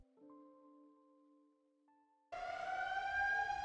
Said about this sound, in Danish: Ja, det er så øh, lyden fra, øh, som kalder til frokost. Øhm, lyden, der kalder til frokost? Ja, til de gamle bygningsarbejdere, der faktisk var hernede i Svendborg. Øhm, og den, den har egentlig ikke rigtig nogen funktion mere,